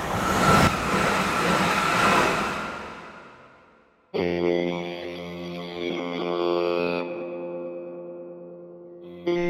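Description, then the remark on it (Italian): A train on the Canada Dock Branch railway line around Stanley Park in Liverpool rumbles past on a foggy winter Sunday with a broad roar that fades away, then a long, steady, loud tonal whine rings out for several seconds before cutting off. “Canada Dock Branch. Mai sentita, vero? In effetti è un tratto di ferrovia che ormai conoscono soltanto gli Scousers, come vengono chiamati gli abitanti dei quartieri periferici di Liverpool.”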